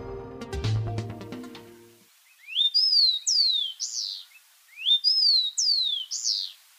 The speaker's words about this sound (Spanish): Este es el copetón común, que se puede escuchar y observar en Bogotá casi en todas partes y a todas horas capaz de vivir en praderas abiertas, estepas, bosques, plantaciones agrícolas y ambientes urbanos.